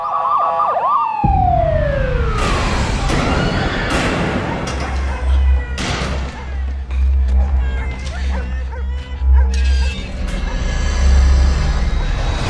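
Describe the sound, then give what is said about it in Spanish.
The trailer for the crime drama TV series The Wire opens with a loud wailing police siren, then swells into a dense, rumbling mix of dramatic music, heavy bass hits and sound effects, with faint voices underneath. “Esta, esta serie se llama The Wire y suena así el trailer.”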